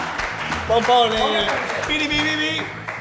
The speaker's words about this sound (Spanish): ¡Un aplauso! ¡Ferran Adrià!